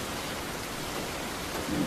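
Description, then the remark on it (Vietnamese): A steady rain shower in Saigon, Vietnam, hisses continuously and evenly, a dense wash of falling water, with a slight low swell near the end and no voices. “Những cơn mưa rào thoáng qua như cảm xúc bất chợt trong lòng người.”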